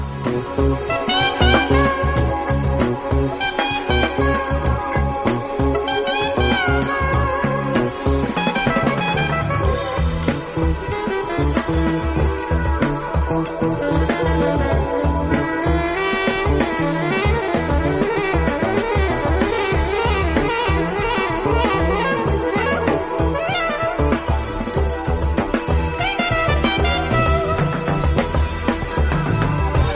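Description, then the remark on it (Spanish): Dense, continuous band music plays at steady, fairly loud volume, mixing psychedelic Canterbury-style progressive rock, funk and jazz-fusion with improvisation, played by the band a band in 1973 inside the temple at Montserrat. Layered instruments shift through melodic passages, with no talking. “horas escuchando esta mezcla del sonido Canterbury, del funk, con el ah. jazz, con la improvisación, eh, con la psicodelia, con el rock progresivo.”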